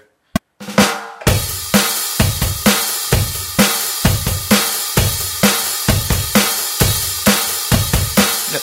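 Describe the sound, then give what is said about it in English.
A drum kit plays a steady, driving beat along with a click track, with regular kick and cymbal hits in an even tempo. No one speaks. “So that annoying sound, that's a click track, and that's how I start doing these things. I play along with this click track.”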